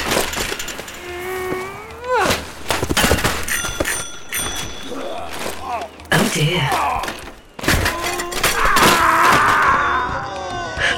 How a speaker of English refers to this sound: Not wishing to be overly critical, but is that what was supposed to happen? A big pile of broken bikes and groaning humans.